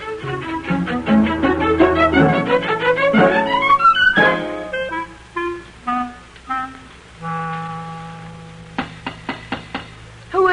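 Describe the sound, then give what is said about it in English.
Several sharp, evenly spaced knocks on a door come near the end after a stretch of bright, shifting music with rising glides and sustained tones. No one speaks. “You're not likely to find out without opening the door.”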